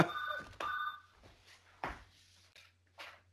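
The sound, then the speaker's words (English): A phone rings in a couple of short electronic bursts, followed by soft clunks and handling thumps as the microphone is set down so the phone can be hung up; no one speaks. “I'm just gonna put the mic down for a second. I'm gonna hang up that phone.”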